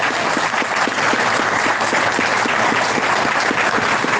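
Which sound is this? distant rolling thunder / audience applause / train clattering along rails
audience applause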